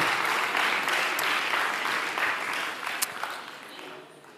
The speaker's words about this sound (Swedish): Ge dem alla en stor applåd.